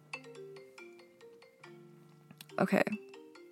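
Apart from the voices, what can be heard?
phone alarm going off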